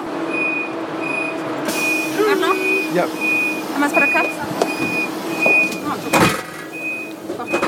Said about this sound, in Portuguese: É um trem que cheira cigarro, o é trem está lotado. É, tá. E nós estamos bem na divisa de vagão. Temos uma sanfona.